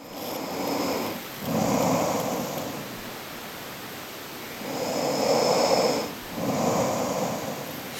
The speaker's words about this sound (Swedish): Men jag vill höra dem. Upp till bevis. Spela upp dina snarkningar nu.